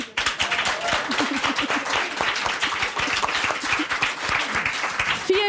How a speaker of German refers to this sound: Können wir bitte alle Frauen ganz laut klatschen, die von sich sagen, ja, ich kann gut einparken und ich bin eine gute Autofahrerin?